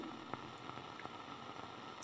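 A faint, steady hiss of steam from a pressure cooker runs throughout, with soft bubbling and occasional small clicks, and a brief sharper hiss near the end. No one speaks.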